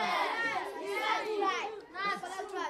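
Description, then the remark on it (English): A group of children chatter and shout over one another in a noisy, overlapping jumble of high-pitched voices, steady throughout. “Uh, uh children, hey, eh, well, stop. Uh, wait, wait, keep okay, quiet. Okay, keep quiet.”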